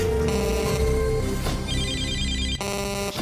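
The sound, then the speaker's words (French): The beep of Africa Radio's answering machine, where listeners leave messages: a steady held tone, then a warbling high-pitched trill, ending in a bright, buzzy harmonic beep, with no voices. “Vous êtes sur le répondeur d'Africa Radio. Après le bip, c'est à vous.”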